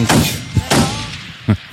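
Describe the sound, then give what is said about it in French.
Gunshot sound effects ring out: two loud, echoing blasts with long decaying tails, punctuated by a couple of short, sharp thuds, with no one speaking. “Eh oui, cher cher, bang bang.”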